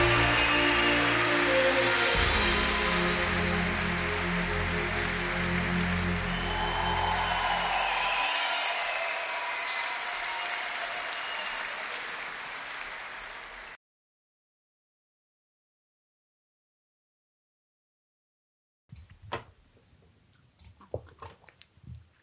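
A crowd breaks into loud, dense applause over a low musical drone, slowly thinning out before cutting to silence, followed by a few scattered claps and clicks.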